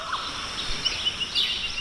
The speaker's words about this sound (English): if you take time to just stand, close your eyes, and listen in Shane's, you can hear an orchestra of birdsong.